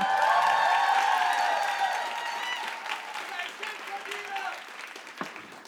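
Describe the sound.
A crowd claps steadily, a dense patter of many hands, with cheering voices over it at first; the applause gradually thins out and grows softer toward the end.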